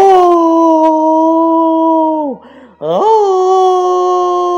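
A human voice imitates a lion's roar, the roar of an angry lion: a loud, drawn-out, tonal bellow that sags briefly in the middle, then swells again and holds steady to the end.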